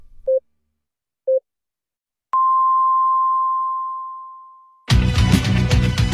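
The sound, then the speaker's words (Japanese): A Nankai Broadcasting radio time signal marking 8 p.m.: two short, mid-pitched beeps a second apart, then a higher, sustained tone that rings for a couple of seconds and fades out before music starts. “南海放送が午後8時をお知らせします”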